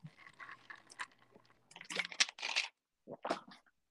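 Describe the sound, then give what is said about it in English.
Wet mouth sounds of someone sipping water, followed by a couple of louder gulping swallows, with no talking. “Gulp. It's like gulp. I'm gonna leave that in.”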